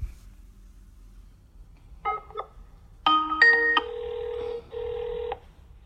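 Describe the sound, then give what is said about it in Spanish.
Several short electronic telephone keypad beeps sound in quick succession as a call is dialed, followed by a steady ringing tone that repeats twice, clear, with no talking over it. “Así que abramos un poco la imaginación y permítanme que lo llame por teléfono para preguntarle.”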